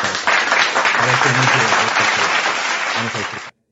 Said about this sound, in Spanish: Estamos empezando. Estamos, empezando. Unos aplausos por ahí.